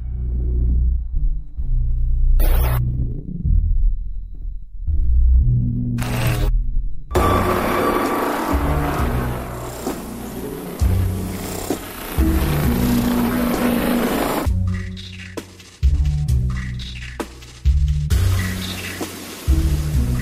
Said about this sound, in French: On écoute ce très beau générique.